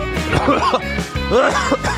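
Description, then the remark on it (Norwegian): A couple of throaty coughs, rough and voiced, one after another with a short pause between, filling the moment on their own without any talking. “Vi lar det bli siste host.”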